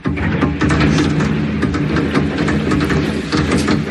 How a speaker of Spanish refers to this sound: Esto que escuchas son fuegos artificiales que han sonado esta madrugada a las puertas del hotel de concentración del equipo blanco, pues intentando perturbar el sueño de los jugadores.